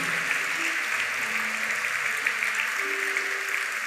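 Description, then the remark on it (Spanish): Steady, dense audience applause for those who made a confession of faith that day, lasting the whole stretch, a loud wash of many hands clapping at once with faint low tones humming underneath. “Un aplauso para todos aquellos que hoy hicieron confesión de fe.”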